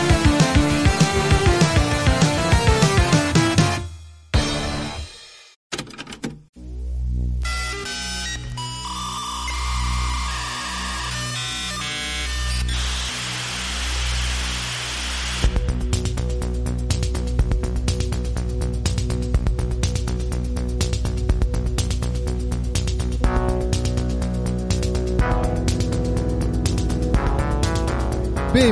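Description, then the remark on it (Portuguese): A dial-up modem connects: dialing tones and beeping give way to a steady pitched whine, then a long, loud stretch of harsh hissing, crackling handshake noise. No one speaks. “Então, conectem sua net de escada, liguem suas caixinhas de som e simbora pro episódio.”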